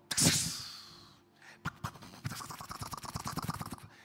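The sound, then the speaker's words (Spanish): A voice mimics a garden sprinkler watering plants at 4 in the morning: a hissing spray burst, then a rapid run of rhythmic clicking, ticking spits, moderately loud, with no words spoken. “Entonces se prendieron uno de papi, de las matas. Y, y eso empezó a mojarnos.”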